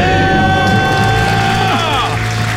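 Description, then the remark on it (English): Loud celebratory cheering and screaming from a few voices at once, a debt-free scream from a couple in the Baltimore, Maryland area who paid off their debt in 18 months, sustained and energetic, with rising and falling shouts layered over a dense, noisy background. “Let's hear a debt free scream.”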